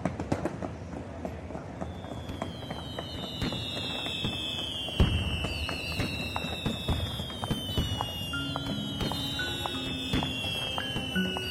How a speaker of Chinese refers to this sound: 左左，烟花好漂亮啊！